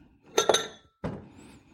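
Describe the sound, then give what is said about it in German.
A plate with an Indian pattern clinks against other dishes as it is lifted out, two quick bright ceramic knocks followed by a softer scrape and rattle, with no talking. “Nehmen wir mal, suche ich mir mal wieder den indischen Teller, weil der so ein indisches Muster hat.”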